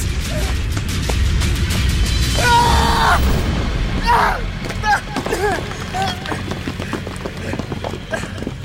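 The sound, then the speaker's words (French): A corridor caving in after a chimera crashed into it: a steady low rumble runs throughout, broken by repeated crashing and clattering debris hits, with a couple of brief metallic groans rising over the din midway. “Je m'étais entravé, échappant de justesse à l'effondrement du couloir.”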